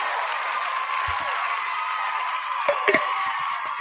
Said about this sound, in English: Hey, sponsoring the building. Round of applause there. Love to see it.